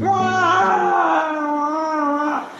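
A sustained, high-pitched wailing cry with a wavering, harmonic tone, loud, held steadily for a couple of seconds before trailing off. No one speaks.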